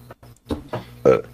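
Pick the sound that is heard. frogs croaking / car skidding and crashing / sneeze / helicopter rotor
sneeze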